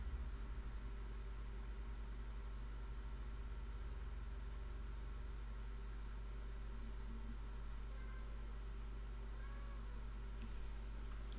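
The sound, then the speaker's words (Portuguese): A few faint cat meows rise briefly near the end over a constant low mechanical hum, like an idling engine, with no talking. “Faísca, anda para aqui, chato de mariquices. Estes gatos, pá, anda.”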